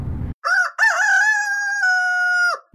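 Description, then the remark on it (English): A rooster lets out one loud cock-a-doodle-doo that holds a long, steady final note, just after a short low grumble from a chicken. No one speaks. “we recorded a chicken and a rooster.”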